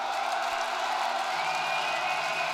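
A large crowd at a live concert in Lyon roars steadily, a dense wash of cheering and applause for the band playing that night, with no pauses or single voices standing out.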